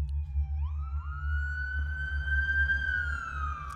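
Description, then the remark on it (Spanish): An ambulance siren wails as the ambulance arrives, rising in pitch and holding a steady high tone over a constant low engine rumble. No one speaks. “Y entonces llega la ambulancia.”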